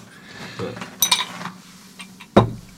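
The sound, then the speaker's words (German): Ice cubes clink and rattle against a glass in a few quick, bright knocks, with a sharper clink near the end, as a Wet Martini-style cocktail is being made. “Diese Eiswürfel kriegt man zu Hause auch hin, ne?”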